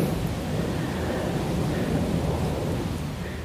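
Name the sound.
airplane flying overhead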